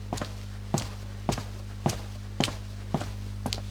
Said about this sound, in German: Gut, dann äh, machen wir jetzt mal Außenschritte auf einer Straße.